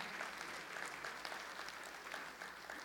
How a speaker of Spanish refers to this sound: Y alégrese, dele palmas al Rey de Gloria, hermano. Alégrese y dígale gloria al Señor.